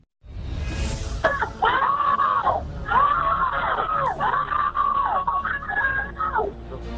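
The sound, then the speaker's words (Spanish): Five children's high-pitched, desperate screams and wails rise and fall continuously, loud with a slightly compressed, phone-line quality, several voices crying out for help at once on a call to an emergency line after getting lost in a sewer in Staten Island. “Esos son los gritos desesperados de cinco niños pidiendo auxilio en una llamada a la línea de emergencia porque se extraviaron en una alcantarilla de Staten Island.”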